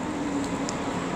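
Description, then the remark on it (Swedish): Steady background rumble of a train station platform in Munich, with a low mechanical hum and a couple of faint, brief high-pitched chirps; no one is speaking. “Så om ni hör lite tågljud i bakgrunden så är det därför.”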